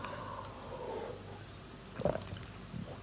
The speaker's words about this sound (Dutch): Ik neem er even een slokje water op.